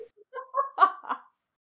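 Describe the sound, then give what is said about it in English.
A person imitates a Canada goose, letting out a quick string of nasal, honking calls, each honk short and slightly rising, before trailing off into silence. “… is a Canadian goose, and I'm not gonna explain that one. Oh my god! honk, honk.”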